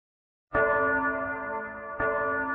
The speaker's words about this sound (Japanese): 港町に楽しい鐘の音が鳴り響いた